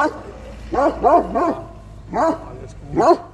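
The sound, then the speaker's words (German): Livestock guardian dogs that protect sheep from wolves bark in short, tonal bursts, a quick cluster of three followed by two spaced barks, loud over a low steady background rumble. “In einem Monat ist das irgendwo an unsere zurzeit zwölf Herdenschutzhunde und Wachhunde verfüttert.”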